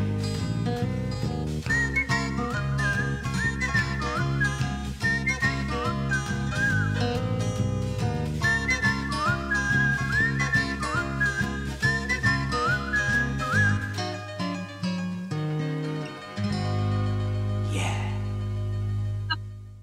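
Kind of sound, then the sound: whistled tune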